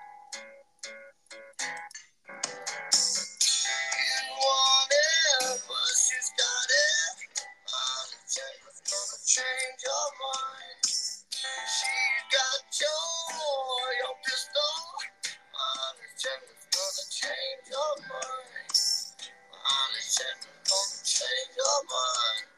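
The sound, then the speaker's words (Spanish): A rock song with a raspy-sounding lead vocal plays continuously from YouTube, thin and lacking bass as if coming through small speakers, with dense, bright instrumentation throughout. “quiero poner rápido …”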